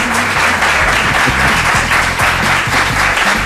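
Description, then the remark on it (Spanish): Loud, sustained applause for the members of a radio show's editorial panel, a dense steady wash of clapping with no pauses and no voices standing out above it. “bueno, bueno, no no, es que mejor aplaudir fuerte una vez para todos que no una vez así para cada uno.”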